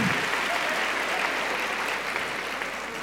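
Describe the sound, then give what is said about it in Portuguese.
An audience claps steadily and densely for a few seconds, a continuous wash of many hands at fairly even loudness with no voices rising above it. “Se for bater aí, bate com vontade, porque faz vergonha isso aí.”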